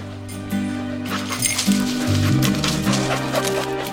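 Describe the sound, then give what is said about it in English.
Light metallic jingling of a search dog's collar tags, shaking irregularly as the dog is run to search for human remains, heard over a steady low musical drone. “Just going to run this dog to see if we can find any type of uh, human remains that are left.”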